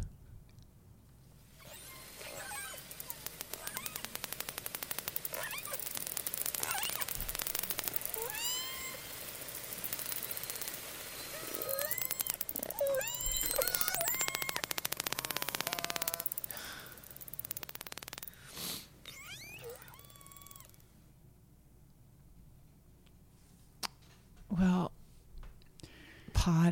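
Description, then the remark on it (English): Southern Resident orca pod vocalizations: many squeaky, rising whistles and wavering pulsed cries overlap over a steady underwater hiss, busy for about twenty seconds before thinning to a few scattered calls. “And here are the sounds of that pod.”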